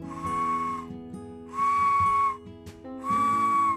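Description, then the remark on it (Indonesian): Three sustained, trilling whistle blasts from a toy bird whistle, each about a second long with short pauses between, fairly loud, with faint background tones underneath and no talking. “Hmm mainan burungnya ini bagus ya?”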